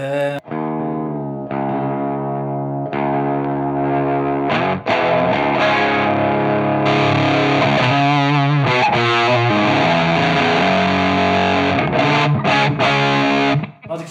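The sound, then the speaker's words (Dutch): A distorted electric guitar, a 950 with a Les Paul-like vintage character, plays loud, sustained chords with thick, buzzing overtones, changing every few seconds. Wavering bends ring out midway, and no one speaks over the playing. “Dus ah, eh, die uh, eh, 950 heeft echt zo'n Les Paul karakter.”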